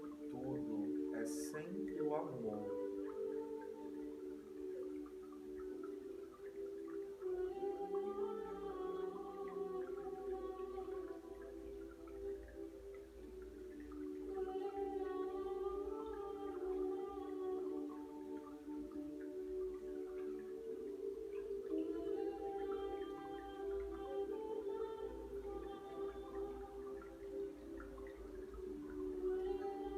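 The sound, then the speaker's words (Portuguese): A steady, droning chanted mantra about love plays continuously, with sustained vocal tones and gently rising and falling melodic lines layered over a low, constant hum, at a moderate, even volume throughout. “E esse mantra que nós estamos ouvindo fala sobre o amor.”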